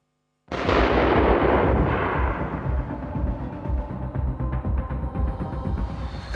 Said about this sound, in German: Es sind Szenen wie aus einem anderen Land. Junge Männer im Kampf mit der Polizei, Gefechte auf offener Straße und gefährlicher Feuerwerksbeschuss, von dem auch Rettungskräfte und Feuerwehr nicht verschont werden.